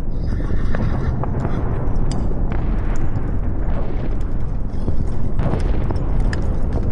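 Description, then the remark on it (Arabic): Sounds of the Battle of Waterloo in Belgium, France against a British-German-Dutch alliance: a loud, dense battle din, a constant rumbling roar with galloping hooves and booming explosions, sharp bursts and cracks breaking through the wash of noise throughout. “اللي احنا سامعينها دي تبقى أصوات معركة ووترلو واحدة من أشهر وأكبر المعارك في تاريخ البشرية ومعركة ووترلو اتقتل فيها حوالي 40 ألف جندي من الجانبين في نص يوم فرنسا لوحدها في جانب وتحالف بريطاني ألماني هولندي في الجانب الآخر المعركة حصلت في أراضي بلجيكا”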